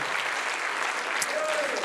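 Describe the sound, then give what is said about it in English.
A large church audience claps steadily and enthusiastically to magnify God, a dense wash of applause from start to finish, with a brief voice rising faintly underneath. “Would you clap? clap once again uproariously uh, and magnify God.”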